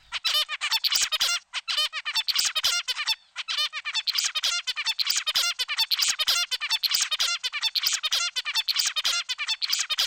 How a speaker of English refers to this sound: As they grow older and learn, the baby bird's babble becomes more boring and predictable, or what researchers call the stereotyped, never changing song of adult zebra finches.